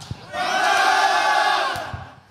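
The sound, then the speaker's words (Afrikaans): A group of men at Calvinia Kollektiewe Sentrum shout the Afrikaans greeting "Môre!" to listeners together in one loud, sustained unison call lasting about a second and a half, with a brief murmur of voices around it. “So, sê gou vir hulle môre.”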